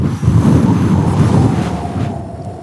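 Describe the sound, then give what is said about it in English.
Steady wind at the beach roars and buffets the microphone with a loud, low rumble, continuous for a few seconds with slight gusty swells and no voices. “Get a little ambient wind in the cast.”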